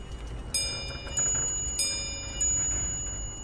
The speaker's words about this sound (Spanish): estuvo despierto, pendiente de las campanadas del reloj. Las doce y cuarto.